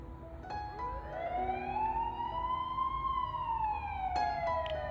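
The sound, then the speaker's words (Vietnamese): An ambulance siren wails from a distance in Ho Chi Minh City, Vietnam, during a lockdown. Its tone rises slowly and then falls in one long sweep over a low steady background rumble, with no voices. “Đường phố chẳng còn tiếng còi xe nhộn nhịp Không còn tiếng rao Chỉ có tiếng còi hụ của xe cứu thương thỉnh thoảng vọng lại không khí yên ắng cả buổi sáng”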